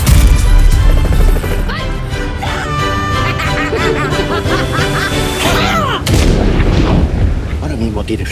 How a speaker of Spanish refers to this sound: Eh, explosiones, eh, gritos.